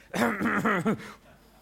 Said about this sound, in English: I was singing away there, and then I got really conscious that I needed to cough and didn't want to freak everyone out.